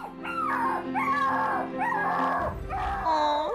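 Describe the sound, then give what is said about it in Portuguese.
The dog Feial whines jealously in a series of drawn-out, high-pitched, wavering cries, four or so in a row with barely a pause, fairly loud over a low background hum. “Feial mostrava-se ciumento e gania.”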